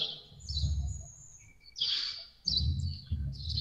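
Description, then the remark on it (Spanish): Small birds chirp and tweet in a park in quick, high-pitched bursts, several calls overlapping, over a steady low outdoor rumble. “Ahora, escucho, que escucho que estás en un lugar con pajaritos y por ahí un búho.”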